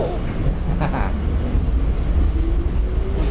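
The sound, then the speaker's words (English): A steady, loud low rumble of a train rolling along the rails, heard while riding aboard the train, with a faint rising whine and brief clicks over the continuous drone. “Are we riding on the trains? Are we going for a ride? see the lights passing by through the window.”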